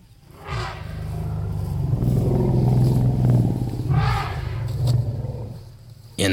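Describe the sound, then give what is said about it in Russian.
A deep, sustained elephant rumble, loud, with breathy roaring bursts near the start and again toward the end, low tones throbbing steadily for several seconds. “Сейчас вы услышите звуки самого крупного наземного млекопитающего. Вы, конечно, поняли, что речь идет про слона.”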